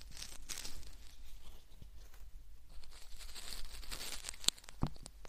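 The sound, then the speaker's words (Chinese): Continuous soft crinkling and crackling of a cardboard box, with a steady rustle throughout and two sharper snaps near the end. No voices. “不知道为什么，人类对这种低盒子的声音”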